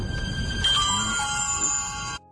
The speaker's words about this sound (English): Sorry about that. That was my notifications here on my uh, my phone.